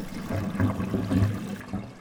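Water churns and gurgles in a steady, low rush for about two seconds as a sailboat sinks in a gentle sea, with swelling surges and no voices.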